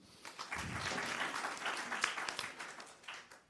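An audience applauds steadily for about three seconds, a dense crackle of many hands clapping at once that swells quickly and then tapers off at the end.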